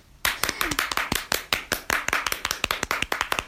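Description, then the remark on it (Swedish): Rapid hand clapping starts abruptly and continues steadily, a series of sharp, bright claps in quick succession with slightly uneven spacing, loud and dry, with no talking. “Ja, jag skulle göra en liten applåd, men du var så snabb där.”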